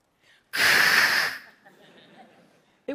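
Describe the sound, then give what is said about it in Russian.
A voice imitates a Geiger counter held up to fir needles, a loud, crackly hiss lasting about a second, then trailing off into faint breathy noise before a short burst at the end. “Сняла с нее пакет, поднесла oh, счетчик Гейгера к иголкам и услышала самый чудесный звук.”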